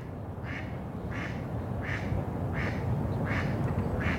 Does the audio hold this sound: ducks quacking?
yes